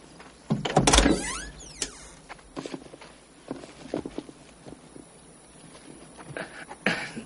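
The door of a pickup truck engraved with "Kincaid Photography" opens with a loud metallic clunk and a brief creaking squeal, followed by scattered softer knocks, rustles and shuffling as objects are picked up from the front passenger seat, then another sharp clatter at the end. No one speaks.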